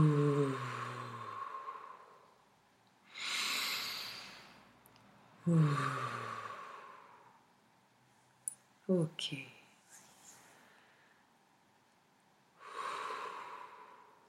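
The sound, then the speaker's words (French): Slow breathing during a guided breathing exercise: deep breathy inhalations alternate with voiced, sighing exhalations that let out a low humming tone, about three outbreaths across the stretch, calm and unhurried. “Vous pouvez même, moi ça me fait beaucoup de bien aussi, sur l'expiration, sortir un son Ok.”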